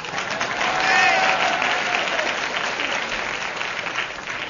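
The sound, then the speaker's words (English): A burst of audience applause greeting the entrance of the character Bluebottle, dense clapping that swells in the first second then holds steady before easing slightly, with a faint whistle or cheer rising briefly through it. “Pauses for audience applause, never sausage.”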